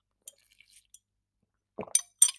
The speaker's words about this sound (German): Und was ihr da so klackern hört, ist übrigens ist ein Glasstrohhalm. Ja, ungünstig für Podcastaufnahmen, günstig für die Umwelt, da müsst ihr durch.